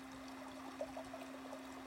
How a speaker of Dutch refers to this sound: Als je goed luistert, kan je het water ook al horen.